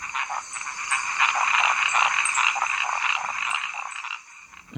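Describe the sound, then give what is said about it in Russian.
A dense chorus of male burrowing treefrogs at a biological station in Panama, calling together in unison, a continuous buzzing, pulsing din with many overlapping calls, loud and steady for several seconds before easing slightly at the end. “Аспирант Генри Легит на практике на биостанции в Панаме заметил, что самцы курносы, роющие квакши, издают крик, э, будто бы хором, совершенно одновременно.”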